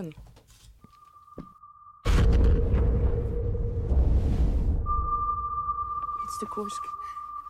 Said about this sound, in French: Euh, on va passer au, enfin, au nouveau film de euh, Thomas Winterberg. Euh, que, si je dis pas de bêtises, on l'avait pas vu depuis la communauté, Thomas Winterberg, qu'on connaît évidemment pour, pour la chasse. On écoute la bande-annonce.